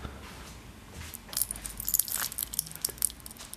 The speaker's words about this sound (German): Ich nehme dafür hier meinen Tee mal kurz in die Hand, schmeiße ein paar Kluntjes rein und jetzt gieße ich heißen Tee drauf